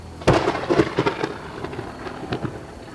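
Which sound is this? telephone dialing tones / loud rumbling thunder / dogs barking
loud rumbling thunder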